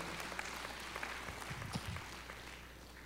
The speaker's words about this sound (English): We, can we give Jesus a clap offering, everybody? Hallelujah.